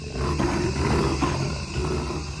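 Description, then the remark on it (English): A deep, rumbling growl from a large wild animal, sustained and fairly loud throughout, with a low guttural texture and no voices present, recorded with microphones set up along a trail. “I heard this growl in my headphones.”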